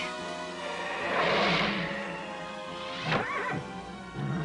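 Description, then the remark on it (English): A horse whinnies loudly, a shrill, quavering neigh that swells and then drops into a shorter, sputtering snort near the end. No one speaks. “I hope they, well, yeah, they did live because then that's when they decide, okay, let's just jump out, what, like 50 stories down to land on this poor horse?”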